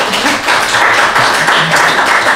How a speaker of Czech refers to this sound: Mohu ti potlesk?